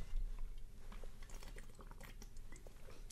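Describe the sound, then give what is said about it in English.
Someone takes quiet sips of water, with small wet clicks, soft slurps and a swallow scattered over a few seconds. No one speaks. “You know, this water, it might be tasteless, but it tastes like victory.”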